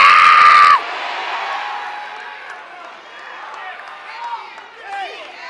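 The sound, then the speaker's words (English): A large crowd bursts into loud, overlapping shouting all at once as people yell to their neighbors, then the roar of many voices trails off into scattered calls and chatter. “Yell at your neighbor and say, This year!”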